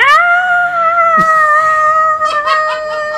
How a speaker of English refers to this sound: Um, yeah, I got nothing else but screams.